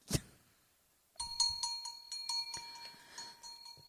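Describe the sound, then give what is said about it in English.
A short click, then after a brief pause a bell sound effect rings out, struck repeatedly in a rapid jangling pattern with bright, sustained tones lingering for several seconds. No voices. “God, my bells are so long. They're really overstaying their welcome.”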